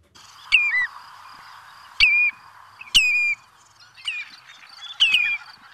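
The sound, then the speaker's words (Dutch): A common redshank gives five clear, ringing whistled calls, each a sharp note sliding downward, spaced irregularly over a few seconds against a soft background hiss, with no voices. “Ja, dit is de, de Tureluur, zo tureluur. genoemd. Ja, zo gezegd genoemd naar, naar wat hij roept.”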